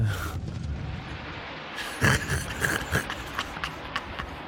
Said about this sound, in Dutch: Ze hebben alles uit de kast gehaald. Kanonnen.